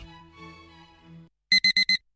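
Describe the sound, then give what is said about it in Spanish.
A soft, sustained tonal ringing fades out, then an alarm clock sounds four loud, sharp electronic beeps in quick, even succession, clear with no talking. “Pasarse al Seat León híbrido con Seat Flex es tan fácil como posponer la alarma.”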